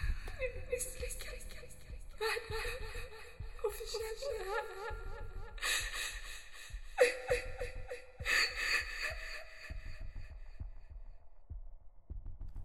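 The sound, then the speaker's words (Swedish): A girl at the top of a tower cries and whimpers in repeated wavering, sobbing bursts, fairly loud, over a low, steady thumping pulse like a heartbeat. “Flickan i toppen av tornet gråter och du är fast i hisschaktet som inte längre har någon väg ut.”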